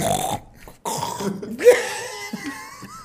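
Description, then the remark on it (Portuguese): A voice imitates gurgling, burp-like throat noises, a few croaky bursts with short gaps between them, fairly loud and rough. “Gelava demais a garganta dele, aí ele ficava fazendo aqueles barulhos com a garganta.”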